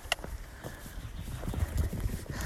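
Several horses' hooves clip-clop in an uneven, overlapping patter that gradually grows louder as a whole herd comes after one horse's name is called, with no voices, only a faint hiss and a brief sharp tap at the start.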